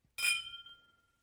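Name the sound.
glasses clinking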